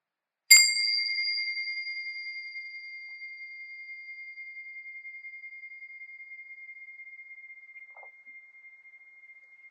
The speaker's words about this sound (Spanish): Así que cierra muy suavemente los ojos, llevando toda la atención al sonido de la campanita.